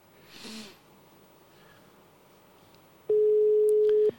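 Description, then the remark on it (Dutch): A steady, loud phone dialing tone sounds for about a second near the end as a call is placed to a mobile phone, following a brief breathy snort and a quiet stretch of background noise. “Ik bel Jesse Mobiel.”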